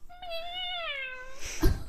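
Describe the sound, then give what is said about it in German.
A person imitates a cat's meow, one long drawn-out, slightly wavering mew lasting over a second, clear, followed by a brief breathy noise. “Ich bin eine Katze.”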